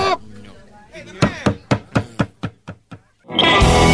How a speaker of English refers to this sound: There's someone pounding at the door.